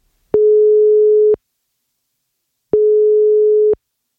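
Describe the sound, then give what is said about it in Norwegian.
Two long beeps of a telephone ringback tone on an outgoing call to this week's main guest, each a steady mid-pitched hum lasting about a second with a pause between, fairly loud and with no voices. “Nå skal vi ringe ukas hovedperson, rett og slett,”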